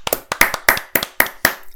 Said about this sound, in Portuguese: Por isso, uma salva de palmas para a Ana Carrasco.